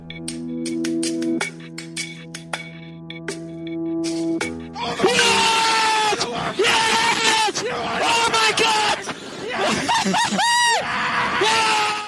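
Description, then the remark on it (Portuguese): Formula 1 driver Max Verstappen screams and yells ecstatically in celebration, still inside his car on taking the chequered flag to become Formula 1 world champion, loud over a noisy cockpit radio line, after a brief musical intro of sustained tones and percussive hits. “Esses gritos que você ouviu foram do piloto Max Verstappen, ainda dentro do carro, ao receber a bandeirada e se tornar o campeão do mundo de Fórmula 1.”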